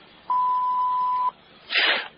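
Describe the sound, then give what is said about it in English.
A single steady answering machine beep after a recorded greeting asking callers to leave a message, a clear mid-pitched tone lasting about a second over faint line hiss, followed shortly by a short burst of rough, hissy noise. “Please leave your name, number, and a message after the tone.”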